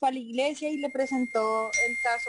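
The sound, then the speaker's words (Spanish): A short electronic notification chime from the speaking woman's cell phone rings out near the end, bright and steady, partly overlapping her as she keeps talking through it. “perdón por mi celular”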